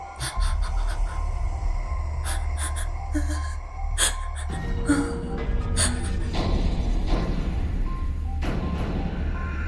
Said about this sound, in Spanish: Y ahora para hacerlo más intenso, puedes llevarlo al límite, generando tensión en tus músculos, acelerando tu respiración cuerda respiración entrecortada.